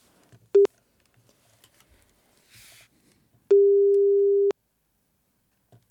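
A telephone ringing tone while calling a resident of the rural area near Hella: a steady mid-pitched electronic beep, first as a brief blip, then as a longer tone of about a second, with quiet gaps and a soft hiss between.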